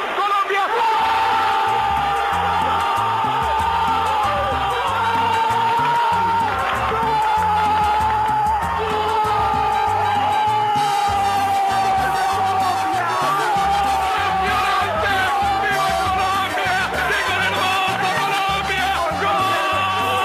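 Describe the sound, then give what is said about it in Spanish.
A huge stadium crowd roars after a football goal in the third match of the 1987 Copa Libertadores final, Peñarol versus América de Cali, heard in the commentary booth during William Vinasco's narration: a loud, unbroken wall of cheering and yelling, with a long sustained shout on top and steady rhythmic thumping underneath. “pero rescato la narración de William Vinasco por una razón, ese ensordecedor rugido que se escucha en toda la cabina que emula el grito de una nación entera.”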